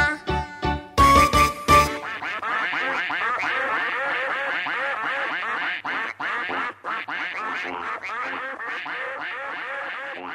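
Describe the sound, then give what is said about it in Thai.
Ducks quack in a dense, overlapping chorus that runs without pause, loud and busy, opening with a few sharp, harsh bursts before settling into steady chatter, as the ducks bathe in a ditch. “กากากา เป็ดอาบน้ำในคู ตาก็จ้องแลดู เพราะในคูมีหอยปูปลา”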